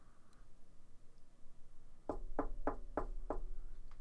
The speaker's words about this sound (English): You don't have to fucking knock. I don't. I'm gonna. I'm gonna get a no fucking knocking sign on the goddamn door.